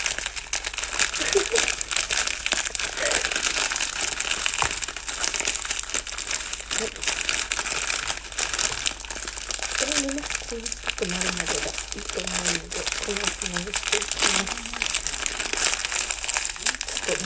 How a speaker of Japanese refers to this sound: ビスケットが粉粉粉々に砕けたので、えー、飛ばしバターをね加えて下地をね作っていきたいと思います